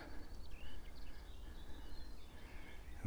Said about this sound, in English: There's a wren to my left.